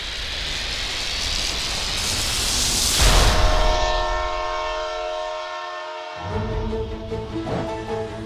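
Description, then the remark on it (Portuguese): A train rumbles past, then its whistle sounds a long, steady, tonal blast that holds for several seconds over the continuing rail noise, loud. “Imediatamente, vocês são teletransportados de volta ao presente e o trem apita alegremente e continua seu percurso.”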